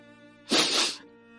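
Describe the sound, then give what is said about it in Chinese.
An old woman draws in one hard, hissy sniff through the nose, lasting about half a second. It rises sharply and stands out loudly over a faint, steady tonal hum underneath. “说到这儿，老太太用力的吸了吸鼻子，”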